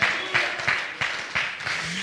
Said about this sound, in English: I want everybody to clap your hands and shout hallelujah to that.